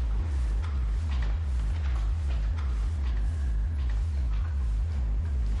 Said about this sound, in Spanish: Dentro camina por un amplio pasillo.